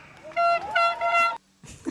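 A toy car horn honks twice in quick succession, bright, nasal and loud, then cuts off, leaving a brief muffled rustle.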